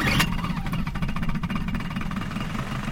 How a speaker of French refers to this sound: Et à un moment, qui gonfle le bateau, paf, ils mettent le moteur en marche.